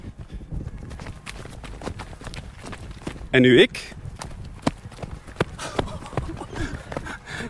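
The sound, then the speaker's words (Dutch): Repeated thudding footfalls of someone running, landing heavily in a steady rhythm, with a brief louder burst partway through and people talking over the steps. “Maar ik plof. Met uw goed zo. Te hard op de grond.”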